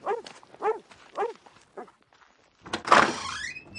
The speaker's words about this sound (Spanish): Esos malditos perros.